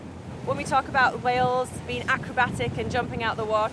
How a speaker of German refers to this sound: Sie ist ebenfalls dick eingepackt und sie muss gegen den Fahrtwind anschreien.